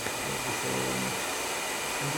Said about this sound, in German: und du föhnst so als Coiffeuse. in eine Richtung, ja.